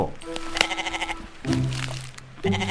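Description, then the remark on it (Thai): A goat bleats three times in a row: a long, quavering nasal cry followed by two shorter ones, loud and mid-pitched with no talking over them. “เอาละค่ะ เจ้าแพะต้องอยู่ที่บ้านของลุงทองดีไปอีกสักพัก”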